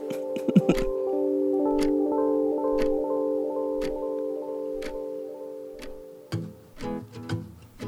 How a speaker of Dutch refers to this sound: Nu hoor ik die klok dus wel heel erg, hè?